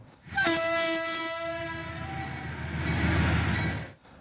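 A train horn blasts a sustained harmonic chord as a train rumbles past, its heavy low roar swelling and then fading over a few seconds, with no voices.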